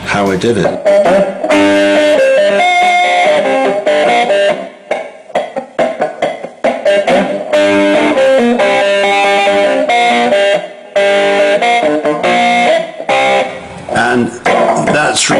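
A loud, gritty electric guitar riff with a distorted, crunchy tone plays on its own, repeating a chunky rhythmic figure with short stabbing notes and brief pauses between phrases.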